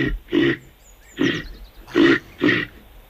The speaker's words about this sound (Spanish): Eh, a ah, ver, os repito, es un animal navideño. Un reno, un reno. Ole, sí señor, es un reno.